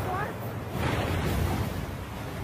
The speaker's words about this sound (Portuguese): Nós tínhamos as ondas, as ondas, as ondas a baterem, o vento a soprar bem